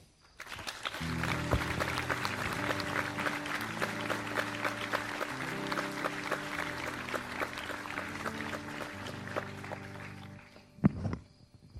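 A crowd applauds loudly and steadily for about ten seconds, dense clapping layered over a rhythmic low musical bass line, then it quickly dies away with a single sharp thump at the end.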